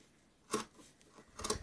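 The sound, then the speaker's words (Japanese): Scissors cut through fabric in two crisp, rasping snips spaced about a second apart, with a faint click between them and no talking, while fabric for clothing is being cut out. “まあね、あのー、裁断していくときに、”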